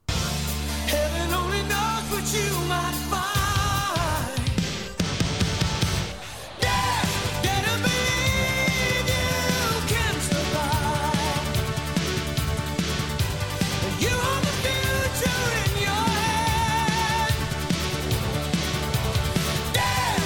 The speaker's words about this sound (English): Uh, the driving rock, the keyboards, it's it's all kind of a bit mix of uh, their writing styles.